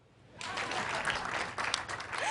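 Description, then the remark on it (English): Audience applause during a speech as the speaker tells of receiving a B minus in the KCSE; it starts after a short quiet moment and builds into steady, dense clapping from many hands, holding at a fairly loud level with no voices heard. “when I sat for the KCSE for a second time, I was able to receive a B minus clap.”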